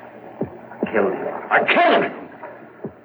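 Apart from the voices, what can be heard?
beating heart sound effect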